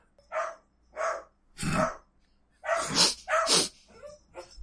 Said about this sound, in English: Farewell to Benji. Bye, Benji. I'll miss you. Benji's lament woof woof.